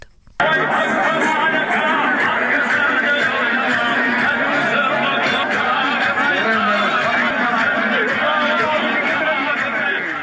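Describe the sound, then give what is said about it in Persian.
A festive crowd in Sarvabad, Kurdistan province, celebrates the arrival of spring at a ceremony welcoming the season, a dense, loud wash of many voices chattering and laughing together, starting abruptly and continuing steadily without pause. “صدای شادی و شور مردم کردستان را میشنیدید که به پیشواز بهار رفتند”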